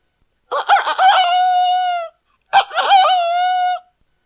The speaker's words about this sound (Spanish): Un poco más adelante, el burro, el perro y el gato oyeron a un gallo que cantaba. Parecía que se iba a romper la garganta.